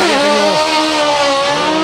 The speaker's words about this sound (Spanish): Rugen los motores en la salida. Ya está de nuevo el crono.